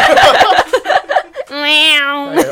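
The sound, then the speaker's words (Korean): Someone talks briefly, then draws out a single long, steady meow in their own voice, a close and fairly loud human imitation of a cat. “내가 고양이 역할 할까?”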